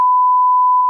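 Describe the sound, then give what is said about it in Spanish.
A censor bleep covering a speaker's spoken real name: one steady, high-pitched electronic tone lasting just under a second. It is loud and even throughout, with no voices or other sounds around it. “Lo que acaban de escuchar es mi nombre real, pero no lo escucharon ustedes porque va a salir un sonidito raro.”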